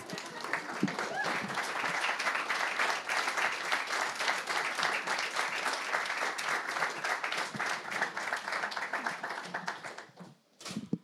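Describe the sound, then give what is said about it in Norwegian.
An audience applauds steadily for two translators coming forward to read from the book they translated, a dense wash of many hands clapping at an even level for about ten seconds before it trails off abruptly at the end. “Så gi en applaus”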